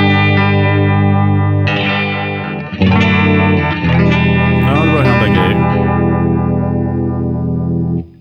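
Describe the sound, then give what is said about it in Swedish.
Distorted electric guitar chords pass through a Thermonuclear modulation pedal in its 45 mode, with the speed turned up to about three o'clock. This gives a rapid throbbing, chorus-like, univibe-style warble with a brief pause and bright sustained ringing throughout. “Ja, det som är coolt med 45-läget tycker jag är att man får det här lite pseudo univibe-känslan faktiskt.”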